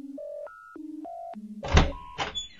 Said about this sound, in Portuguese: Caminhando aproximadamente 5 metros da porta do elevador, ele aciona um código em um sistema na parede, que abre outra porta.